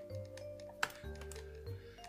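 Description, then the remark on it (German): Scattered, quiet computer keyboard taps over a low steady hum, with one sharper click standing out among a few softer keystrokes. “Ich hab gerade deine Tastatur gehört, aber.”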